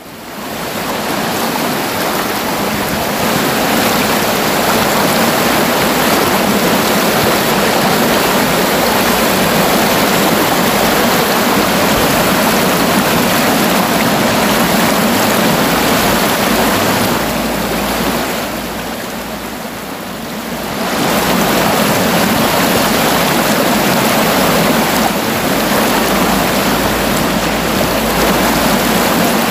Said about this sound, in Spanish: Este es el sonido del río Deva a su paso por Potes